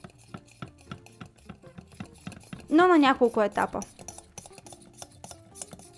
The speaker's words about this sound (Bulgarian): Продължавам да бъркам сместа на водна баня с тел, докато не стане на пяна.